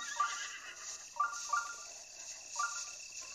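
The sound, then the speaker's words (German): A horse in a video game whinnies in several short bursts, spaced irregularly over a few seconds, fairly quiet against a steady background hiss, with no talking. “Ist da bei den Pferden ein Schrein?”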